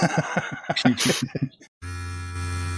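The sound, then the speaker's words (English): A voice talks briefly, then stops, and a Manscaped Lawnmower 4.0 fourth-generation electric grooming trimmer with a ceramic blade switches on with a steady, droning buzz that holds evenly to the end. “You're listening to the Lawnmower 4.0 Manscaped fourth generation trimmer featuring a cutting edge ceramic blade to reduce grooming accidents.”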